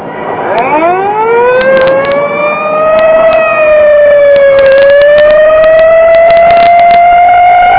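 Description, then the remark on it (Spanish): A police patrol car siren winds up from a low pitch into a loud, sustained wail that holds steady and grows slightly louder as the car approaches, with no voices. “Entonces ese auto es de la policía. Debe ser una patrulla. Ahí viene.”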